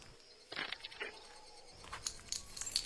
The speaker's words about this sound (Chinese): 嗯，怎么会有一把钥匙？